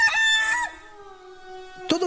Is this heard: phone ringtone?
no